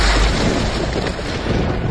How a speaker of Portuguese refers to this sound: explodindo na cabeça do dragão que cai morto completamente sem vida